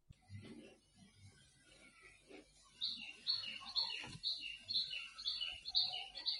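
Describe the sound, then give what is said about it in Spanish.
Small birds in Phuket chirp in the background with quick, repeated high-pitched calls that start a few seconds in and continue steadily, over a low muffled rumble near the beginning. “Bueno, ya escucho los pajaritos de fondo que, son de Phuket en este caso, ¿correcto?”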